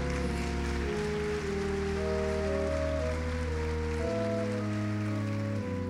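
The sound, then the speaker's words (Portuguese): Steady audience applause for the Lord, a dense crackling wash of clapping, running under sustained keyboard chords that shift pitch a few times, with no one speaking. “Olha, você quer aplaudir ao Senhor?”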